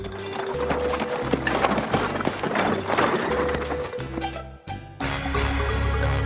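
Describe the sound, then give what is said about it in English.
Steady clip-clop of a horse's hooves on a road as it pulls a gypsy caravan, a quick regular trot, with a jaunty musical backing playing alongside and a brief dip near the end. “The three friends travel along the road.”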